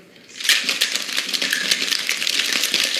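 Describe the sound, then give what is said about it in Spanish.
A cocktail shaker is shaken hard with ice, starting after a brief quiet moment: a loud, fast, continuous rattle of ice clattering against metal that keeps a steady, vigorous rhythm, with no talking. “Este, este sonido es el que creo que amamos todos los bartenders.”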